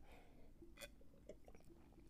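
A quiet sip of moonshine: soft wet mouth and swallowing noises over near silence, ending in a brief sharp click. No one speaks.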